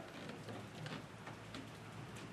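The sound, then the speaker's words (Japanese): Steady rain patters in a garden off a veranda at a Shuntaro Tanikawa art exhibition, dense scattered drops tapping surfaces with a constant soft hiss and a faint low hum underneath, no voices. “ちょうどね雨の雫がですね皆さんをお迎えしているということになってます”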